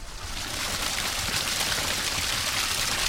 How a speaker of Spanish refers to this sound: Fíjate, esto es un desagüe que hay aquí, de una fuente.